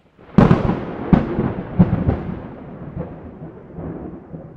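Thunder cracks and rumbles through a storm, with several sharp booms in quick succession trailing into a long, low roll. It is loud, with no voices.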